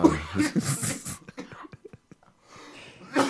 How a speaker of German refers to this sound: was musst du husten? Hast du irgendwelche Hustenanfälle?